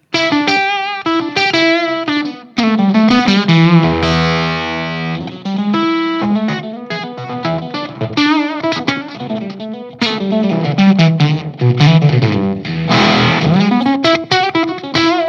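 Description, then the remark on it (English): Electric guitar played through a fuzz and octave pedal, with the fuzz and tone turned down and the level turned up, thick and saturated with buzzy upper harmonics, picking out a loud, sustained melodic line with bending notes and short pauses, no voices. “I bring down the fuzz and down yeah. with the tone a little bit and up with the level so it will sound more like that.”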